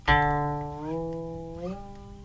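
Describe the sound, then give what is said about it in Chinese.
A single guqin string, plucked once by the right hand, rings out, then its pitch glides upward in two smooth steps as the left hand slides from the ninth to the eighth and seventh positions, shortening the vibrating string, while the note sustains and slowly fades, with no voices present. “就是声音还在的时候，就一直让它变高，很神奇， 好像在变魔术，对不对？”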